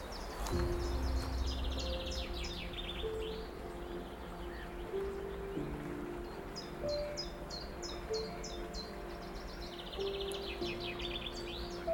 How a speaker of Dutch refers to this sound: Nou, die tjiftjaf die is eh, onmiskenbaar. Tjif, tjaf, tjif, tjaf.